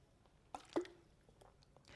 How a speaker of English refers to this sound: To use a prosaic example, I'll take a sip of water because it's really hot, and uh, daily behavior, little effort is possible.